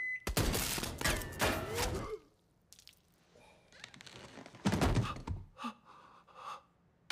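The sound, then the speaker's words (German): A loud burst of rapid gunfire lasts about two seconds, then after a quieter pause a second shorter volley of shots rings out, followed by scattered fainter noises. “Schüsse! Schüsse!”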